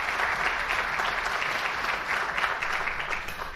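A theatre audience at a Portuguese revue show at the Maria Vitória theatre in Parque Mayer claps steadily, a dense, even wash of many hands applauding without pause, fairly loud and sustained throughout, with no voices standing out.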